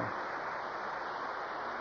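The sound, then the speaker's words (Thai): A steady, unbroken hiss of falling rain, a dense wash of noise that holds at an even level throughout with no distinct drops or pauses. “นะฝนตกแล้วนะนี่ไง”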